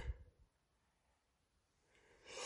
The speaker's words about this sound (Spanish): Ah, cuarto bostezo ya.